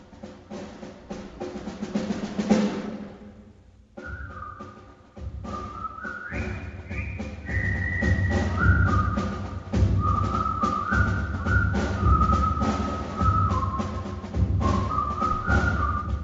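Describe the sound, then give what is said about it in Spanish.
A jaunty military march from the film The Bridge on the River Kwai, carried by a clear whistled melody stepping up and down in short phrases over a steady band accompaniment with a thumping beat, played loud as recorded music. “Pues yo creo que a mí y a todos los oyentes de Radio María es de la película del puente sobre el río Kwai.”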